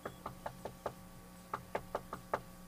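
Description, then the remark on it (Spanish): Someone raps on a bedroom door in two quick bursts of about five knocks each, separated by a short pause. The knocks are firm, with no one talking. “Yo quiero que tú vayas al cuarto y toques.”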